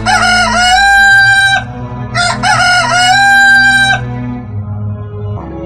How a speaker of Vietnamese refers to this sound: Gà gáy vang khắp cả một làng quê yên bình Báo hiệu trời đã sáng